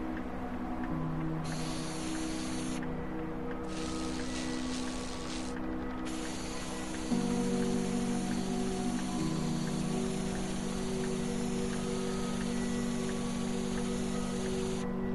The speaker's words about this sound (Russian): профи начинает распылять краску цвета зеленой мяты.